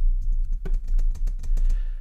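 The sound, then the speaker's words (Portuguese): Rapid tapping on a computer keyboard, picked up as vibration by a microphone without a shock mount, a fairly loud steady stream of sharp clicks over a low rumbling hum, with no voices. “Por exemplo, vamos lá vir aqui, ou no tripé ou até na secretária, ou então no teclado.”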